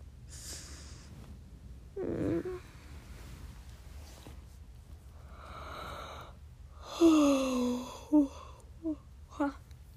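yawning

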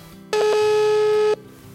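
telephone call ringing tone

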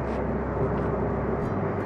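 car interior noise

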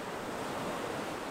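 ocean waves on shore

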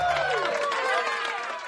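applause

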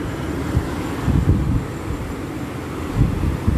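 sea waves

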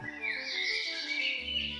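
birds singing

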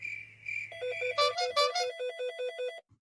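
telephone ringing

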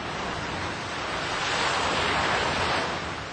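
ocean waves

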